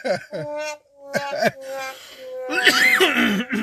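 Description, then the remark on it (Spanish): A loud run of harsh coughs and throat-clearing bursts, coming in several rough spurts with strained voiced sounds between them, ending in a longer raspy fit. “Chale, güey, me preocupa tu pinche tos.”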